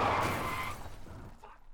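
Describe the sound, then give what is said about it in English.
A pickup truck, run off the road, crashes straight into a ditch with a loud impact: a burst of crunching noise that rumbles and rattles as it fades out over a second or two as the truck comes to a halt. “Then they ran me off the road and my truck crashed straight into a ditch and came to a halt.”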